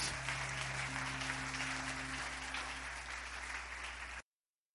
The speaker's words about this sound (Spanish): ¿Cuántos lo creen? ¿Cuántos lo creen? Dale un aplauso a Dios.